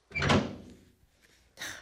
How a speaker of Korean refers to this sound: 순식간에 현관문이 활짝 열어 제껴졌고